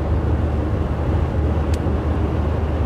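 A bus drives downhill on the A81 with a slight tailwind, going a bit faster, its engine and road noise forming a constant, loud low rumble from inside the vehicle, with one faint high tick partway through and no voices.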